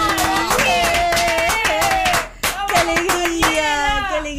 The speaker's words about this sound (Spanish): Este aplauso es para ustedes.